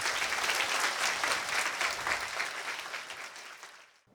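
An audience claps steadily for about four seconds, a dense, even patter of many hands that fades out abruptly at the end. No one speaks over it.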